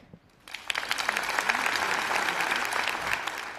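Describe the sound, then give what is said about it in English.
An audience bursts into applause after a brief quiet moment, clapping to vote that a news story is real: a dense, steady wash of many hands clapping that holds at an even, fairly loud level for a few seconds. “Clap your hands if you think this is real.”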